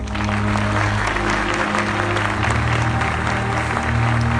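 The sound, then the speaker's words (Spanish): Loud, sustained audience applause given for the audience themselves, with dense clapping from many hands, steady throughout with a low hum beneath it. “Ahora sí, un aplauso fuerte para ustedes.”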